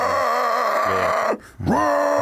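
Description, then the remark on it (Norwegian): A person imitates a baboon's hissing roar: a loud, raspy, drawn-out growl that breaks off briefly, then resumes with a rising pitch and trails on steadily, with no words spoken. “I tillegg så har de veldig skummelt brøl. Mm. Det er sånn der eh, hissing eller sånn der...”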